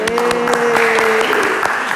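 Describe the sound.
A round of applause from a group, with dense, steady clapping filling the full two seconds at a fairly loud level. A sustained, voice-like tone runs beneath the first half.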